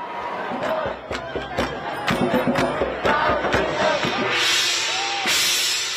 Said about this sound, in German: Vor dem Weißen Haus jubeln sie seinem Nachfolger zu.